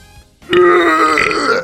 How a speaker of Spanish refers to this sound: No va un eructo boludo, perdón, pero, boludo. Perdón, pero no tenía que sacar.